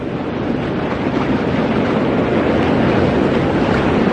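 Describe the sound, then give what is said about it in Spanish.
Water washes and splashes steadily against a moving boat in fog, a loud, continuous churning roar mixed with wind buffeting the microphone, with no voices. “Me volví apresuradamente hacia la cálida cabina de radio y cuando estaba a punto de llegar, escuché un chapoteo.”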